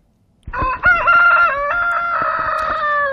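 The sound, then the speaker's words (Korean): A rooster crows once, loud, a long drawn-out cock-a-doodle-doo that starts sharply and holds a strained, wavering pitch to the end. No voices are heard. “달개 울음소리입니다.”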